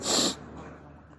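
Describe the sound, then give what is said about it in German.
A short, forceful nasal sniff through a congested, blocked nose, a single breathy snort lasting about a third of a second, followed by quiet background noise. “Entschuldigung, meine Nase ist verstopft.”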